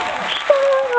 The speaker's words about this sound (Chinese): 来，掌声欢迎。